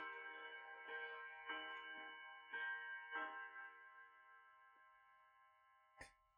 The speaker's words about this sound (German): Das ist jetzt nicht … Spiel. Das ist die, das sind die Glocken von Rom.